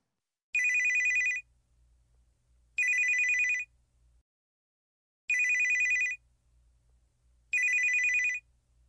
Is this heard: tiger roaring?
no